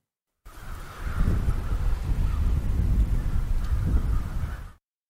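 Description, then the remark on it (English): Harsh crow caws, field-recorded, ring out over a steady rush of wind and low rumble, the calls blending into a continuous outdoor bed rather than standing out sharply. “The crows I actually recorded.”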